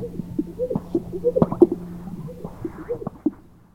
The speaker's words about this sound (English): Especially during the mating season when the males puff up these giant air sacs on their chests and they strut around making the craziest sounds to attract the ladies. It's like nothing I've ever recorded before.